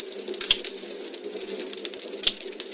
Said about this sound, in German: Das gute alte Kaminfeuer oder Lagerfeuer.